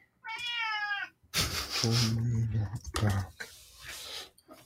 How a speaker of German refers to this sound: ja, die gehört, die gehört zum Podcast dazu. Ja, das ist die, die Podcast-Katze.